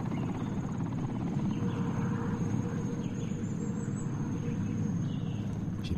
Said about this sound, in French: Je me suis dirigé vers le bruit. J'ai vu une clairière. Je suis sorti dans la clairière, et là l'hélico est arrivé, a tourné au-dessus de moi